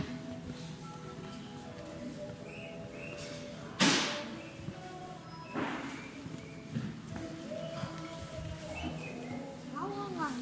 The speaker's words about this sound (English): The cart is chirping like a bird. I don't get that. Those aren't birds, people. They're uh, they're chirping, chirping wheels.